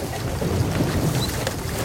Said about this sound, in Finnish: Saaristomerelle annettiin kovan tuulen varoitus. Lähdettyämme Aspöstä tuuli yltyikin 12 metrin sekunnissa ja aallokko nousi.